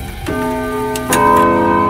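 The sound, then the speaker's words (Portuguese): An antique clock ticks with a few sharp clicks, layered over sustained ringing tones that swell louder about halfway through, with no voices present. “Para seu horror, o astrólogo da corte se transformou em um relógio antigo.”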